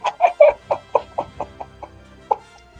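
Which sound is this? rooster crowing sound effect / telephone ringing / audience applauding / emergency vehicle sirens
rooster crowing sound effect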